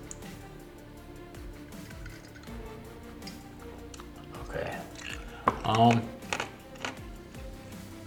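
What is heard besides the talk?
chewing ice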